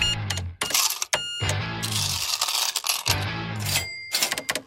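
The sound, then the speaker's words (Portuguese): Coins clink and jingle in bright, metallic bursts alongside the clatter and ring of a cash register drawer, with several sharp chimes over a few seconds and no voices. “O dinheiro trocado para miúdos.”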